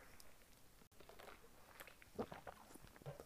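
Crunching and chewing of ice cubes right into the microphone, a series of irregular crisp crunches as the ice is bitten and ground, with no talking.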